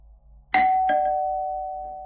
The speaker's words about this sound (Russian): В 10 часов утра в дверь позвонила соседка.